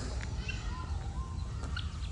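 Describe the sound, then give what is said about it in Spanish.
Helmeted guinea fowl in Africa give scattered short, chirping calls over a steady low rumble of outdoor background noise, with no talking. “estos pájaros se, llama el, se llaman African Guinea Falls.”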